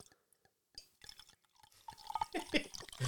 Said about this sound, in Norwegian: Så prøve å tømme litt for den litt store flaska.